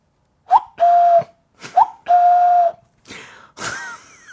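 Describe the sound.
Someone whistles an imitation of a cuckoo call twice: each time a short upward chirp, then a long, steady mid-pitched note. Breathy, noisy bursts follow.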